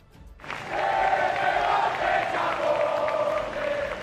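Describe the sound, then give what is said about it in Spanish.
A large crowd at Spain's National Day celebration in Madrid erupts in loud, sustained booing and whistling aimed at acting prime minister Pedro Sánchez, a dense roar with steady high whistle tones running through it after a brief quiet start. “ha sido recibido con una sonora pitada”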